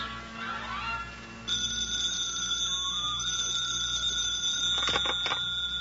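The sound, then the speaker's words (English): A telephone rings in the Montague apartment in the morning with a bright, continuous bell tone that starts abruptly after a brief quiet moment and keeps sounding loudly and steadily to the end, with no one speaking. “The phone rings.”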